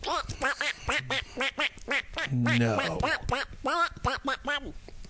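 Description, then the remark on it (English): A man talks in a raspy, quacking duck-like voice, imitating a duck's speech in rapid, garbled syllables, with a drawn-out nasal quack around the middle, fairly loud. “He would like sit in bed and just talk like a duck for hours.”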